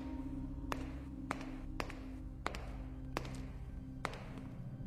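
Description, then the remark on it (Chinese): Six sharp, tapping footsteps of someone behind a man walking along a road fall at a fairly steady walking pace over a constant low droning hum, with no voices. “又一阵脚步声响起，就在他身后，近了。”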